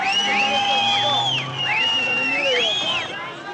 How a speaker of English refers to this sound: The Iranian capital, Tehran, a city scarred by rioting in angry protests against the Shah. And this is what happened in the streets below when they were taken over by huge crowds of demonstrators.